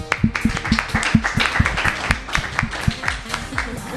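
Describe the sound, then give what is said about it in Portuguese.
Steady audience applause, a dense run of many hands clapping at once with sharp overlapping claps, fairly loud and continuous throughout, with no talking over it. “Merece isso. palmas, gente.”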